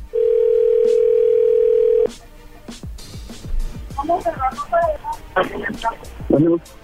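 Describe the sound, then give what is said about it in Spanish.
A steady, loud telephone dial tone hums for about two seconds while a call is being dialed, then cuts off into a string of light clicks and taps, followed by faint voices talking. “Ah, a marcar a ver si otra vez sí lo escucha.”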